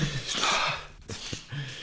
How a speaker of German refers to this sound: die Nase putzen.